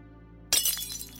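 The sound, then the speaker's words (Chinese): A cup shatters with a sudden loud, bright crash after a low hum, followed by a second or so of scattered high tinkling as fragments settle. “完美人没控制住激动的情绪，打碎了一只杯子。”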